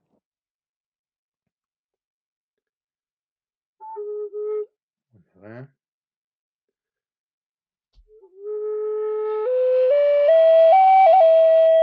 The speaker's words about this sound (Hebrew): החליל האינדיאני הוא, הוא באנגלית Native American Flute, הוא נראה ככה, הוא עשוי מכל מיני סוגים שונים של עץ